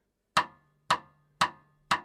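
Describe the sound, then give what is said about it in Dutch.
Four sharp, woody rimclicks struck on the rim of a snare drum, evenly spaced about half a second apart, each a crisp knock with a short ringing tail, played alone. “Een klap op de snaredrum, op de rand van de snaredrum eigenlijk.”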